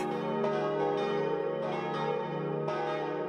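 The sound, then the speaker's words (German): The four church bells of Obertheisendorf, tuned to the Te Deum motif, ring the midday festive peal, overlapping in a dense, sustained wash of tones with fresh strikes every second or so, steady and loud throughout. “Seine vier Glocken, gestimmt auf das feierlich wirkende Tedeum-Motiv, tönen zum festlichen Geläut.”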